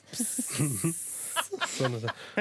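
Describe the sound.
A steady, hissing stream of liquid, like someone peeing outdoors, runs for about a second and a half while voices talk over it. The talking continues after the stream stops.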